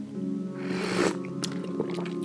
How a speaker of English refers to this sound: Grab your coffee, since it's not your cup of tea. Take a sip.